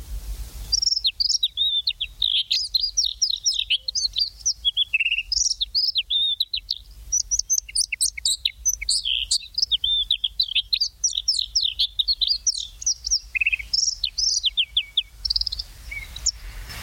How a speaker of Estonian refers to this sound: eks ole kaunis ja mitmekesine ka punaselg õgija on üks neid linde, kes oskab teisi imiteerida.